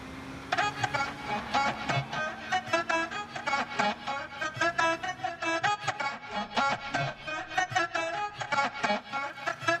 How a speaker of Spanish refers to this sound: Nos vamos a ir a la pausa escuchando un tema.